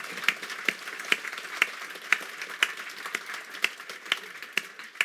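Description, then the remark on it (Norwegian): An audience applauds, a dense clatter of many hands with sharper individual claps standing out at a steady, roughly half-second pace. Moderately loud and continuous, with no voices. “Ja, vi kan gjerne hørt det tendens til en klapping her.”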